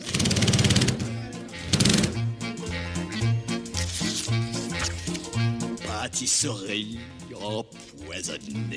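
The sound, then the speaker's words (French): A power screwdriver whirs loudly in a steady, rhythmic buzzing pulse as it drives an extraction screw into a door lock, the first step in opening a door with a crowbar, with a voice speaking over the mechanical drone. “À l'aide d'une visseuse, enfoncer la vis d'extraction dans la serrure.”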